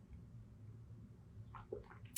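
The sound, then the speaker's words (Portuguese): A quiet sip of water near the end, in São Paulo, with a couple of soft, wet mouth sounds and a small click over a low background hum, with no talking. “Toma um água aqui.”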